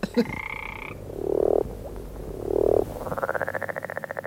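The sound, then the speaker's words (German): A series of calls from a red marbled toad, a disappearing species: two drawn-out, throaty croaks followed by a rapid pulsing trill, with a short tonal call at the start and a steady chorus of background noise. “Die musste sich den ganzen Abend Froschkröten für Geräusche anhören, ja.”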